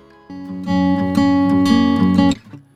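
A song's instrumental intro begins, played on air on Lviv Radio: sustained, bright electronic chords swell in after a brief pause, hold steadily with a few rhythmic accents, then cut off abruptly. No one speaks.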